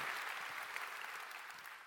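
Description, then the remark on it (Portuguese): Steady applause from an audience during a sermon, applauding the Lord, a dense wash of many hands clapping at an even level throughout, with no voices standing out. “Pode aplaudir o Senhor mais forte, porque é verdade que eu estou dizendo.”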